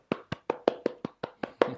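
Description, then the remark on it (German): A lone person claps about nine times at a steady, brisk pace, crisp, a small one-person round of applause rather than a crowd, with no talking. “Applaus”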